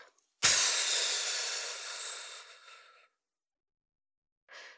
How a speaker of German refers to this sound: Zweitens, atme aus und zieh dabei deinen Bauch ein. Atme wirklich zuerst aus. Ne? Am besten, du machst das mit einem deutlich hörbaren Geräusch.